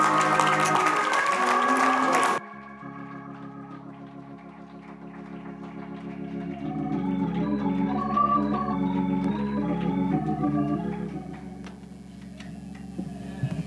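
An audience claps loudly to give God praise, a dense, steady wash of hands for about two seconds, then the clapping cuts off and sustained keyboard or organ music carries on alone.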